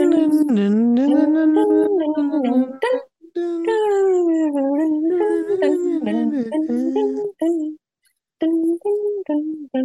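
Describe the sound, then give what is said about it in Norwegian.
A single voice hums a wandering, improvised tune in a steady drone like hold music, with a brief pause before the melody resumes near the end. “Skal jeg komme med sånn ventemusikk, da? Dun, dun, dun”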